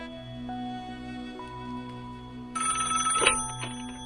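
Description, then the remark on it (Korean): A telephone rings with a bright, trilling bell that bursts in partway through over a steady low hum, moderately loud, with no one speaking; it is a call from the management department. “3일 전에 난 관리부서에서 전화를 한 통 받았어.”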